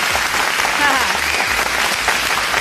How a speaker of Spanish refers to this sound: El guardia, si me estás escuchando, viejo. viejo. Espérate mis aplausos.